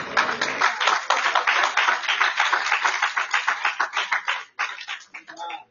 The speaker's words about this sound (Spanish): El aplauso al que vive reina.